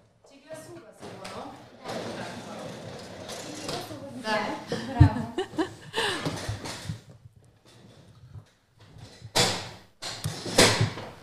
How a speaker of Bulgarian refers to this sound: Вдигам си стола.